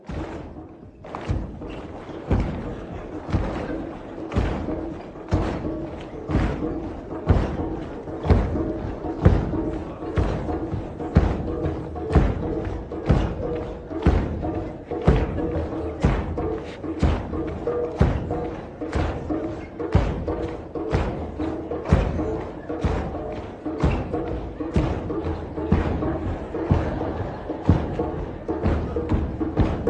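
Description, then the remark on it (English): Feet stomp steadily on a floor in a stomp, lift, place exercise with the right then the left foot, a long run of dull, heavy thuds landing roughly twice a second in an even rhythm, with faint voices underneath. “Now with the left, stomp, lift, place. Stomp, lift, place.”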